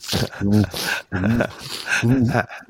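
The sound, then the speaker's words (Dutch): A person's voice imitates the heavy panting of a very large old dog, three loud, breathy voiced huffs in quick succession, with no words spoken. “Ja, zo'n heel groot hijgend lijf.”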